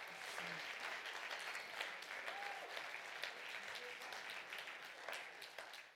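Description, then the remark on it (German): Sustained applause from a large audience for a pastor couple, dense overlapping claps continuing steadily for several seconds, with a few faint voices mixed in. “Und wir möchten mal Ihnen beiden so einen richtigen Applaus geben.”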